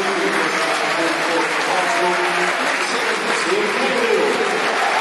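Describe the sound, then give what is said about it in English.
Steady applause from a large football stadium crowd as Tim Cahill comes on as a substitute for Ben Marshall in the 86th minute, a dense continuous patter of clapping with a murmur of voices underneath, holding at an even, fairly loud level throughout. “Get a good round of applause, as you can hear.”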